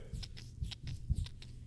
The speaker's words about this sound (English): Why does your eye sound like a squishy ball? I, I really, I don't know. You take your readers off and you start rubbing your eye. And you're like, Yeah, it sounds like this.